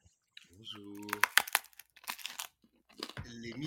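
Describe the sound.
Someone eats a sandwich: a quick run of crisp crunching and crinkling bursts, with muffled voiced murmurs before and after the bites.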